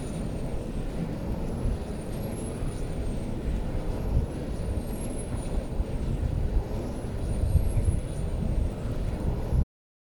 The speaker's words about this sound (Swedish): Detta är det ofiltrerade ljudet av ett vindkraftverk i Lysekil.